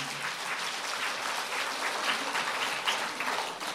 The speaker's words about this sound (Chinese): 是不是手痒啊？这种也要鼓掌的，这讲故事啊。我觉得你们手有点痒，是不是啊？